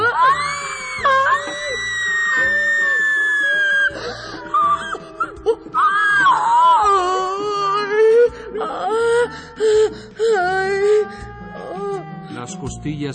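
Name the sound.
children screaming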